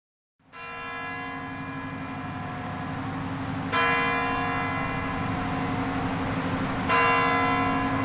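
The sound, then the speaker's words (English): Deep, resonant clock tower bells around Red Square in Moscow ring out at 10 a.m., with a sustained humming tone and fresh strikes arriving about every three seconds, loud and reverberant with no voices. “So at 10 a.m. on the dot, the clocks around uh, Red Square chime all the delegations, all the kind of high level officials are in their seats.”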